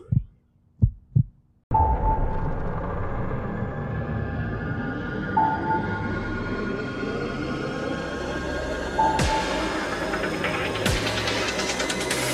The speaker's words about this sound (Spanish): Tu latido.